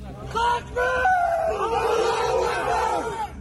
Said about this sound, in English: Footage released by Chechen fighters helping Russia showed them raising a Soviet flag in the city and shouting in celebration.